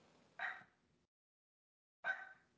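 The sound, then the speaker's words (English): A dog barks twice, with sharp separate yaps about a second and a half apart, moderately loud, with silence in between and no one talking. “Y'all hear my dog?”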